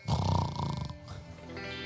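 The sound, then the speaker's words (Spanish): A man's voice imitates a husband snoring: a loud, rough, rattling snore lasting about a second, then trailing off into a softer, quieter stretch. “Su esposo que le hace la vida imposible, cuando empiece a roncar”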